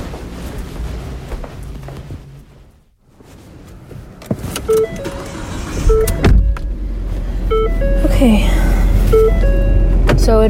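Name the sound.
getting into a car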